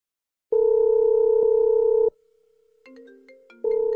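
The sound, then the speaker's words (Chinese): A telephone ringback tone on the second call to the caller's mother's phone, made by a fire: a steady electronic buzz lasting about a second and a half, a softer, fainter stretch with shifting tones, then the loud tone starting again. “我坐在生蚝的火堆旁，第二次拨通了妈妈的电话。”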